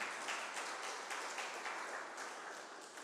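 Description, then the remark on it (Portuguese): A large crowd at a worship service claps and applauds the Lord steadily, a dense, sustained wash of many hands at full volume for a few seconds, easing only slightly toward the end. “Então aplauda ao Senhor bem alto, gente.”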